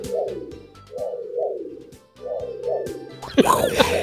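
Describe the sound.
A voice imitates the pulsing scanner whoosh of a car's blinking red LED, three smooth rising-and-falling hums in a steady back-and-forth rhythm, moderately loud, followed by a brief burst of noisy breath or laughter.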